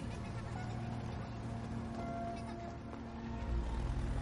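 A car engine hums as it drives off, a low, steady rumble that holds level throughout and swells slightly near the end, with no voices over it.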